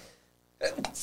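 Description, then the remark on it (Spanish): A single sudden sneeze bursts out after a moment of near silence, a sharp breathy blast followed by a brief hissing tail, moderately loud. “Salud.”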